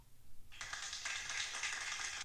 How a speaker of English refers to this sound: That's all the scientists at the university cheering him on. I gotta start using that sound effect more